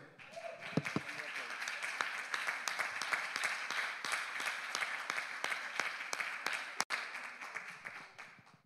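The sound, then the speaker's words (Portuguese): An audience at a church service applauds the Lord steadily throughout, a dense wash of many hands clapping at a fairly even level, with a few sharper individual claps standing out and a brief vocal sound early on. “Aplauda o Senhor.”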